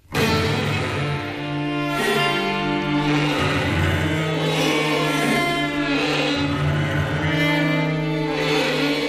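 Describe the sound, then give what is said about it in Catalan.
A string quartet plays a piece based on a madrigal by Monteverdi: slow, sustained chords with long bowed notes overlapping and shifting, a steady and fairly loud ensemble sound with no voices. “una obra basada en un madrigal de Monteverdi”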